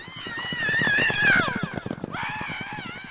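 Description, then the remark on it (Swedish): Rapid, steady hoofbeats of horses galloping as bandits ride away, with a queen's loud, wavering scream rising over them and echoing over the plain, then a second shorter cry as the hooves keep pounding. “Stråtrövaren Heidi och banditerna red iväg och drottningens skrik ekade över slätten.”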